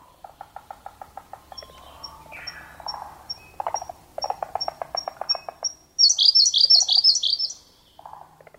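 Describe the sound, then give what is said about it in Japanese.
A Siberian blue robin sings by the water at Hirafushinuma pond in Fukushima Prefecture, Japan: a run of thin, evenly spaced high ticks building into a loud, rapid, tumbling trill, with lower pulsing croak-like calls throbbing in the background. “平伏沼（福島県）のコルリをお届けします。”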